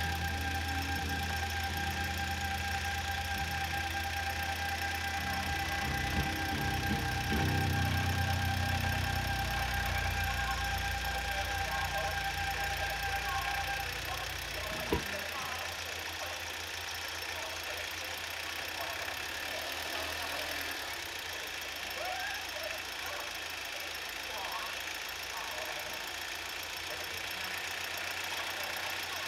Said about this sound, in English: just to see that diesel hum out into the distance. Beautiful sound.